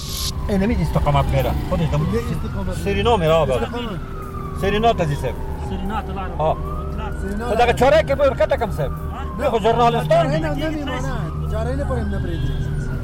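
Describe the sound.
Sirens of police pickups and ambulances wail in slow rising and falling sweeps as they force their way through dense morning traffic in Kabul, about half an hour after several explosions, loud while people talk over the din.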